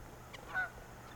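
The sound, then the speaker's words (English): A few soft goose honks from a flight of about 60 Canada geese passing overhead, one slightly clearer call standing out midway, over a quiet background hiss. No one speaks. “Got a um, flight of Canada geese going over here now. Pretty quiet though.”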